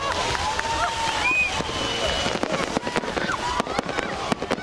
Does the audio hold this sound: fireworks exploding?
yes